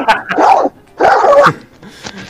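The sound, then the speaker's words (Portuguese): A person imitates a dog that smokes Derby cigarettes barking: two loud, raspy bark sounds in quick succession, then a fainter, shorter yelp trailing off at the end. “Cachorro que fuma derby, ele imitou.”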